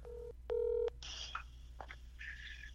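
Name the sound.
telephone dialing tones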